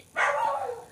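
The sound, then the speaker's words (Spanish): A single drawn-out bark or yelp from one of the speaker's dogs, fairly loud, with a bright tonal onset that trails off over under a second with no one talking. “perdón por mis perros”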